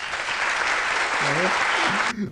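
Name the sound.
audience clapping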